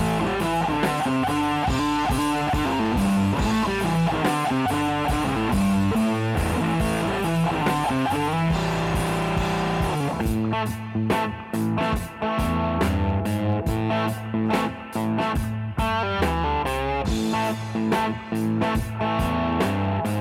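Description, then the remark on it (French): Feverish early-career blues rock recorded in a basement in 15 hours on an 8-track recorder, with almost deliberately minimal production, a fat, raw, distorted sound, loud and dense throughout; about halfway in, the band shifts into choppy, stop-start hits. No one speaks. “Voilà, c'est vraiment ce que vous entendez là, le type de son qui caractérise le début de leur carrière, du blues rock fiévreux avec un son bien gras, sauvage, une production presque volontairement réduite au minimum pour vraiment rendre l'atmosphère”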